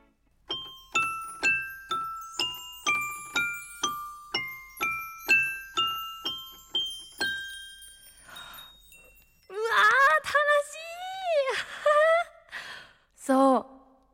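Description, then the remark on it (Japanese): A bright, steady run of about twenty notes on a crescent-moon piano plays a simple melody, each note ringing and fading. Afterward a voice makes drawn-out, expressive exclamations with no instrument. “これが音楽すごいでしょどう三日月ピアノは想像できた”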